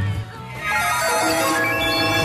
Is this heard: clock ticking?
no